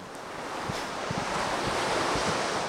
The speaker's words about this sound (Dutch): Ja, het is lekker rustig nu. Mooi vlak zeetje zoals wij dat noemen. Klein branding, maar dat stelt niet zoveel voor. Maar eh, weinig wind.